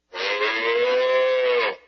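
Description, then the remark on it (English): A single long, loud cow moo, steady, holding its low droning pitch for about a second and a half before cutting off, with no other sounds around it. “Cows like to eat grass.”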